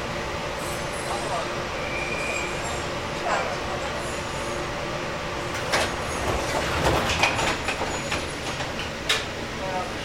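Steady rumble of a JR Kyushu 415-series electric train on the Nippō Line between Ōita and Kōzaki, Japan, heard from inside a carriage, with a constant motor hum, occasional rattles and clunks from the wheels, and brief sharper knocks near the end.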